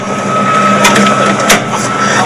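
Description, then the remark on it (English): An aircraft's pylon release for the right drop tank is popped, with a few sharp mechanical cracks and clunks, loudest near the middle, over a steady background hum with a faint whining tone. “If I put a right one on, which I have, um, and I want to take it off the airplane, I have a couple of guys down there catching the drop tank, and this is where I pop it”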